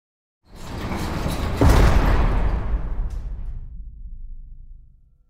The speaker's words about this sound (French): un surveillant dégaine son arme. Un coup de feu retentit.